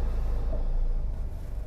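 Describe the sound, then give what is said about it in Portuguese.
A steady, loud rush of air fills the inside of a car as its air conditioner blows hard on Tuesday morning, 23 April 2019, with a constant low rumble underneath and no talking. “Estou dentro do carro, vou até baixar um pouquinho o som do ar-condicionado, está bem alto.”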